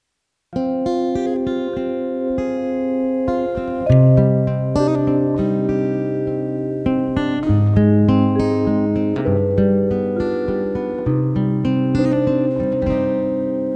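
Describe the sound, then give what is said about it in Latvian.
An instrumental passage opens a song set to poetry by Aleksandrs Čaks, played on the radio, with sustained layered chords and a melodic line played steadily and fairly loud, the harmony shifting every few seconds. No voices are heard. “Bet tagad klausāmies uh, Aleksandra Čaka dzējā skaņdarbu.”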